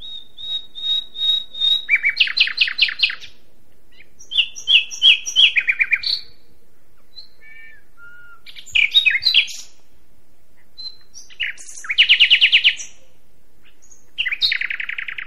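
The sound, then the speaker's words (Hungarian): A common nightingale sings, alternating pure whistled notes with rapid rattling trills and chattering phrases, separated by short pauses, with no voices. “Fülemüle, de csalogánynak is szokták hívni, és hát ez egy nagyon ismert, főleg a hangja miatt nagyon ismert faj”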